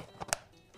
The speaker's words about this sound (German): Entweder über die Heckklappe, die hört sich so an, oder die Seitenklappe, die hört sich so an.